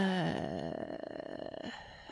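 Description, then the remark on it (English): Cats fighting, a wavering, drawn-out yowl sliding in pitch, then a rough, pulsing growl for about two seconds, with no talking over it. “The cats are fighting.”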